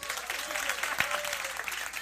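A crowd applauds steadily, a dense wash of clapping that holds at an even level for about two seconds, with a brief sharper clap standing out partway through.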